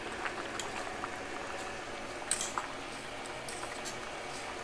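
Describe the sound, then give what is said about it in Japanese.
A small pot of water bubbles at a steady rolling boil as a single serving of five-minute Topvalu pasta cooks, a soft continuous hiss broken by a few brief pops and gurgles, quiet, with no voices. “それを今ね5分のやつを湯がいてますねいいんだ1人分だから1 人分だからちょっとちっちゃめの鍋でやるしね”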